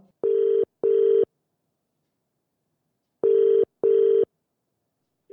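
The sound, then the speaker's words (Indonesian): A telephone ringback tone on a call to Tantowi Yahya, Indonesia's ambassador to New Zealand, purrs through the line in two double rings, each pair a quick burr-burr, separated by a long silent gap; clear and steady with no voices. “Langsung yuk kita telepon.”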